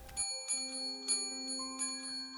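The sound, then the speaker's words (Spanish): A bell rings out in a series of strikes about half a second apart, each tone hanging and overlapping the next so the ringing builds into a sustained, shimmering chime with no voices. “Pero antes de eso, escucharás la campana que nadie escuchó cuando Mary murió.”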